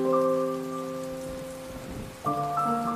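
Steady rain falls in a soft, even hiss beneath sustained, droning musical chords that shift to a new chord near the end. No one speaks.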